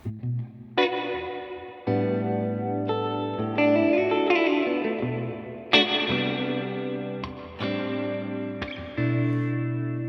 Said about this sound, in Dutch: Ja, je hebt ook, ehm, je hebt ook Plate, Room, Spring. Ja. En aan de andere kant heb je zo'n normaal reverb, eh, modulation en shimmer. Dus je kunt er alle kanten mee op.